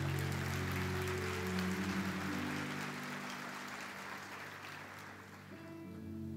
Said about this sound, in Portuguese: Se você quer aplaudir, aplauda Jesus.